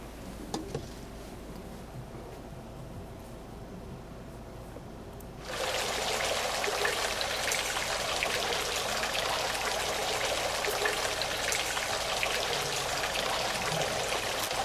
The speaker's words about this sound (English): sound of a fountain. The sound of breaking waves on the seashore. These soothing, wonderful sounds are made by bubbles, entrained by the droplets as they fall on the water or the overturning, crashing wave as it reaches the shore.